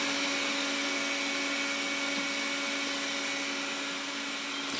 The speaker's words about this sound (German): ich muss den Staubsauger ausmachen ähm, ist schon wieder so spät.